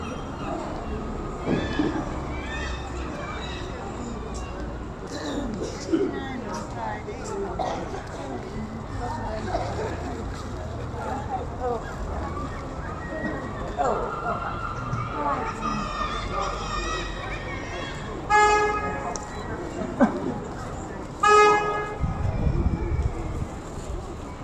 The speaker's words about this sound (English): who emailed to say he stopped to capture the sounds around him outside the Brunswick in Scarborough in June.